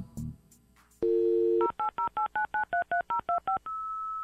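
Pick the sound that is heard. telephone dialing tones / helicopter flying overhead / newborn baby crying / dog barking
telephone dialing tones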